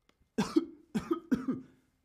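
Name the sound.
cough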